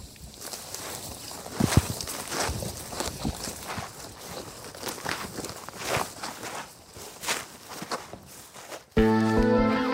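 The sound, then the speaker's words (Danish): Steady footsteps squelch and slosh through soggy, waterlogged marshy ground, sinking in, a continuous series of wet, sucking steps, ending abruptly as a brief burst of music begins. “Jeg begynder så småt at synke ned i, i, i jorden her, der, der er meget, meget våd.”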